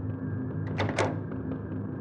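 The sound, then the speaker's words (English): Two firm knocks on an apartment door in Iowa at around 2:30 a.m., close together, over a low steady hum. No one speaks. “by an unexpected knock at her Iowa apartment door.”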